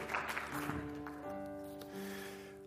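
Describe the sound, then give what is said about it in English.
A crowd claps for degree recipients in a dense patter that quickly thins out, while steady sustained musical tones swell up and carry on beneath the fading applause. “Let's give our degree recipients another round of applause.”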